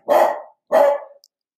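Two loud dog barks in quick succession, each a short harsh burst that fades out, followed by silence.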